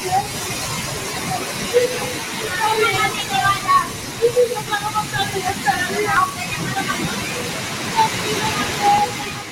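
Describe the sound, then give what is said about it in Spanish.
Heavy rain pours down in a steady, dense hiss that fills the whole clip, with voices talking intermittently over the downpour, during an intense storm with lightning near the Portuguese border. “Lloviendo lo más grande ahora mismo.”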